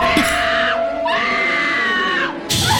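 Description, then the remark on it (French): A voice loudly imitates a shrill, pig-like scream, like a sow, mimicking a film character screaming on discovering her sister dead: three long, piercing squeals, the middle one the longest and most sustained. “Donc, c'est ça, Hélène, elle se fait attaquer, elle réussi à se sauver, elle découvre sa sœur morte. Elle crie comme une truie.”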